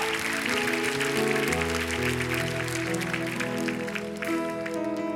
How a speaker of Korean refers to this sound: 다시 한번 주님께 감사와 영광에 기쁨의 큰 박수 올려드립시다.